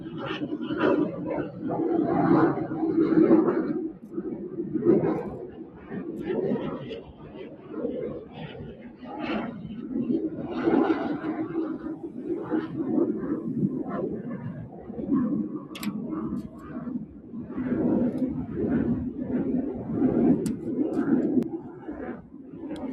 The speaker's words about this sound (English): Okay, that was a jet.